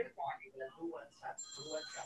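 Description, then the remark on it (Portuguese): A WhatsApp call ringtone chimes in with bright, sustained electronic tones during the second half as a caller phones in over WhatsApp, overlapping with people talking. “Ela ligou do WhatsApp, não foi”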